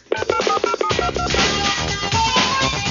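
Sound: telephone number being dialed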